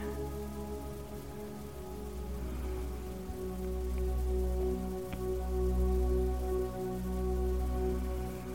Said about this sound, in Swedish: Och verkligen dras in i känslan och ljuden som regnet ger. Kan du känna lugnet och friden? Låta regnet vara en påminnelse om att vara här och nu.